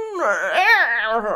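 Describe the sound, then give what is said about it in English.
A single voice imitates a football kick with a drawn-out, wavering, moan-like cry lasting about a second and a half, fairly loud, with no other sounds around it. “and then they that's the sound of them doing like a football kick, and they'd kick the snake.”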